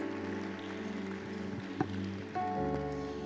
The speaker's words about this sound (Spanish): Denle un fuerte aplauso a Isra Navarro, por favor.